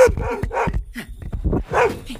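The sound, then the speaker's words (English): A puppy barks in a quick, excited string of about half a dozen loud yips and barks with a slightly whiny edge, filling the whole moment. “okay, puppy.”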